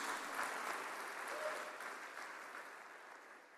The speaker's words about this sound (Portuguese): Aí, pode aplaudir Jesus, por favor. Está liberado bater palma para Jesus.